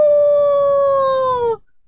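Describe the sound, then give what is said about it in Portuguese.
A single long rooster crow at daybreak rings out loud and alone, a steady, strongly tonal call held for about a second and a half before dipping slightly and cutting off abruptly. “Quando começavam a raiar os primeiros raios do dia, a pequena fantasminha ouviu o canto de um galo.”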